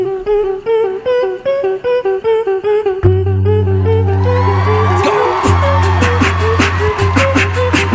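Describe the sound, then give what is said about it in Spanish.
A beatboxing group that won America's Got Talent in 2019 performs entirely with their mouths: a sung, pulsing melody gives way to a deep, sustained bass hum, then crisp rhythmic percussive beats layer in, loud and continuous. “Pues voy a dejarles escuchar los que ganaron el American Got Talent en 2019, Beatboxing Group”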